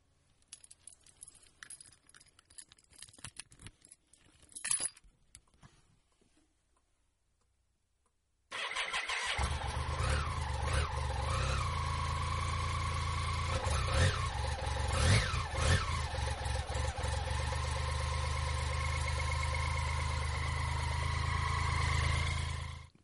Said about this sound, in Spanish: me explicó por qué el motor de mi BMW K75 hace ese silbidito tan característico.